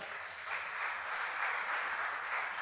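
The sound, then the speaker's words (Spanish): An audience breaks into steady, sustained applause for the Lord, a dense wash of many hands clapping at an even loudness throughout, with no voices standing out. “¿Cuántos dicen amén y le dan un aplauso al Señor?”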